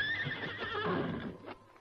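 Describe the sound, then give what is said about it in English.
A horse standing under a tree at night in moonlight whinnies loudly, a wavering high neigh that trails off into lower snorting breaths, with no one speaking. “There's Bob's horse under that tree.”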